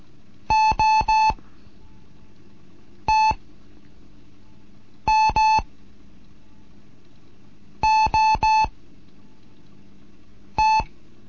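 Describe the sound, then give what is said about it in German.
Morse code beeps in a steady mid-pitched tone, sent somewhat faster as short letter groups of three, one, two, three and one beeps separated by pauses, over a faint low hum. No one speaks. “Jetzt mal eine Gruppe etwas schneller.”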